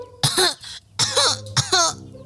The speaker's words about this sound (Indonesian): Ia pura-pura terbatuk-batuk hebat. Loh, Cica, kau kenapa? Batukmu kedengaran begitu parah.